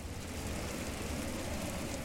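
Steady rain falls continuously, a dense hiss of drops with a low rumbling undertone, even in loudness throughout, with no voices.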